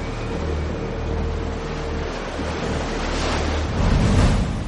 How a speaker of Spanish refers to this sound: De noche un barco navega en medio de un fuerte oleaje.